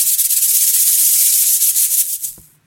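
A rattlesnake's tail rattle: a loud, continuous dry hissing buzz made of very rapid clicks, holding steady for about two seconds before trailing off. No one speaks.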